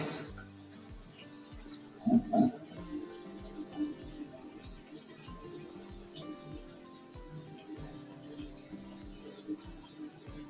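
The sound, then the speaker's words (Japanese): Tap water runs steadily into a sink as a pot is washed, a continuous hiss with clanks of metal around two seconds and light knocks scattered throughout. “それで、今、ちょっとね、その鍋をね、ちょっと開けないといけなくって、その鍋を洗おうと思って。”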